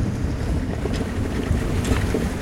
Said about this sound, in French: Le vent continue à se lever.